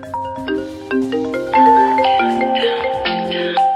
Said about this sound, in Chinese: 朋友们，你们的电话响了。